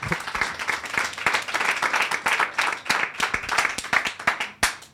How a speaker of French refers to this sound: quelques applaudissements pour, pour la vie et l'œuvre d'El Gigi